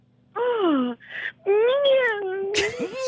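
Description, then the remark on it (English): A woman's voice imitates a cat's meow with two drawn-out, wavering wails, fairly loud, ending in a breathy burst with no other talk. “and she gives out a meow?”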